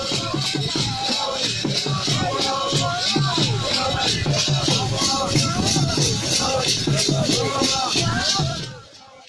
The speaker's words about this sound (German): Was ihr hier hört, ist eine Demo der sogenannten Magermanes in Maputo, der mosambikanischen Hauptstadt. Magermanes werden die ehemaligen Vertragsarbeiter genannt, die nach Mosambik zurückkehrten.